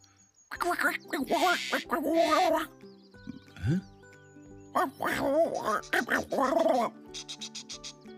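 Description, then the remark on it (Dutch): A voice imitates a bird's twittering and chattering, one of three birds chattering in a story: squeaky, warbling bursts in two long runs, ending in a quick series of sharp clicking chirps, fairly loud. “Een van de drie vogels keek naar Alex en kwetterde.”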